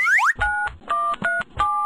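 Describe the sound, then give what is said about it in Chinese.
A quick rising electronic chirp, then four steady dual-tone beeps from a telephone keypad as a number is dialed, each held briefly with short gaps between, fairly loud and without any talking. “请不要细细揣摩字后面的意思，进入打电话模式。”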